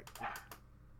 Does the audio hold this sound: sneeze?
no